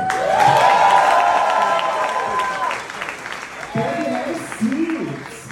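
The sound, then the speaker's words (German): A crowd applauds a drag performer loudly and steadily for about five seconds, with high whooping cheers and shouts riding over the clapping, easing briefly midway before another burst of cheering. “Geef hem een applaus voor look.”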